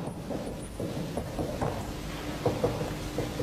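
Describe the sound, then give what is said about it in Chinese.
A low, continuous rumble of thunder rolls steadily throughout, with a few soft cracks breaking through. Faint rain may be hissing underneath, and no one speaks. “那雷鸣打雷呀，雷鸣地发哀呀。”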